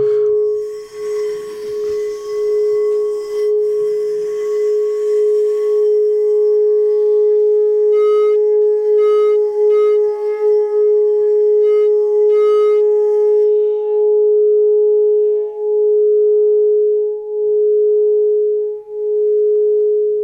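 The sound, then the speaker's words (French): A crystal singing bowl rings out a steady, pure sustained tone with shimmering upper overtones, a soft rubbing texture at the start, then the note hums on alone for the whole stretch without fading. “Et là, on, va travailler avec le bol en cristal.”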